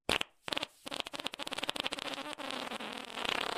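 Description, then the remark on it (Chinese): A long, sputtering fart from a stomach bloated after eating too many beans: rapid crackling pops that quicken and merge into a steady, buzzy rasp lasting a few seconds, fairly loud with no talking over it. “吃太多，二郎发现自己的胃胀胀的，很想放屁。”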